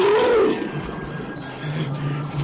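A tiger chasing a wounded man toward a river lets out a loud, deep roar up close in the first half-second, then it trails off into a low, rumbling growl that lingers in the background.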